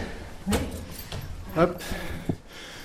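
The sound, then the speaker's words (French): A door is opened at the top of a dark climb, with a few sharp clunks and scraping creaks from the latch and hinges spread over a couple of seconds, against a low rumble. “Encore une porte à ouvrir.”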